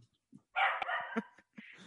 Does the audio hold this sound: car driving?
no